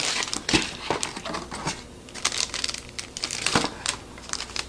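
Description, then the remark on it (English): Crisp crinkling of two small plastic instant noodle packets, the soup base and seasoning, being handled, with irregular rustling bursts and a few sharper crackles over several seconds, no voices. “So you have the soup base and seasoning packets. They have two packets, which is a little bit different than most.”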